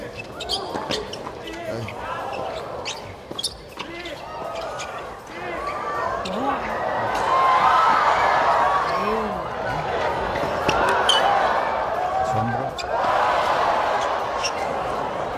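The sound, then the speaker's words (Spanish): Sneakers squeak and a ball thuds during a rally for a great point, then a crowd swells into loud, sustained cheering and shouting as the point is won, rising and staying strong to the end. “Ya, ya va a oír a la gente.”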